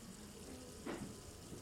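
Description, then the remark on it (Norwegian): A man at a kitchen sink pours water quietly into a carafe, a soft continuous trickle with a brief, slightly louder gush partway through; no one speaks. “Han står ved vasken og heller vann i en karaffel.”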